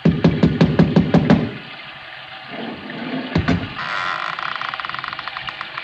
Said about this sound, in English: I lifted the bronze idol and rapped on the door with it, and the voices stopped.